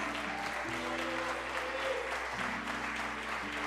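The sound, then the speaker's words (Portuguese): Sustained applause from an audience, applauding God, fills the whole stretch, a dense steady patter of many hands clapping, with a low organ-like musical tone held underneath. “É isso, aplauda o grande, vai.”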